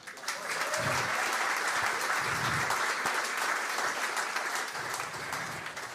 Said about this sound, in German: Komm, ein kleiner Applaus, oder?